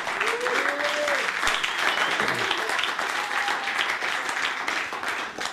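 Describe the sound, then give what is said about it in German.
An audience applauds steadily for several seconds, a dense wash of clapping at an even level, with faint voices and a brief cheer-like tone rising through it. “Komm, gib den Applaus.”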